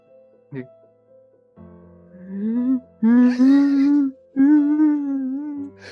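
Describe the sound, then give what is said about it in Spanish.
A voice imitates a man's sorrowful sobbing, crying with grief as he bows his head with his back turned: a brief sharp intake, then three long, wavering, moaning wails with a steady mid-low pitch, loud and unbroken by words. “El loco, dándote la espalda, agachaba su cabeza, digamos, y sollozaba.”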